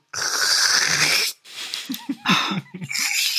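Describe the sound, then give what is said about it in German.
A voice mimics slurping soup from a bowl, close and loud: one long airy sucking draw followed by several shorter, choppy gurgling slurps, with no talking. “und dann steht dahinter der kleine Baby Yoda und saugt so geil aus seiner Schüssel aus”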